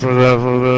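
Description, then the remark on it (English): A voice imitates muffled AM radio sound, a brief, steady, droning nonsense babble delivered loud, lasting under a second. “Back when it was on AM radio, you would just hear it sound like this.”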